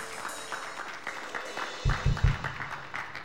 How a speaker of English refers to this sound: And uh, how about a round of applause for all of our helpers on Friday and Saturday?